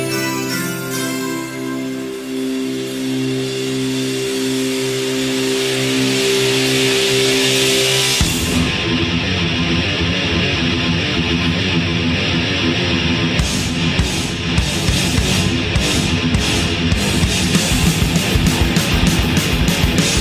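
A quiet, clean melodic intro gives way after about eight seconds to a loud, heavy thrash metal song with dense distorted guitars and fast, pounding drums. No one speaks.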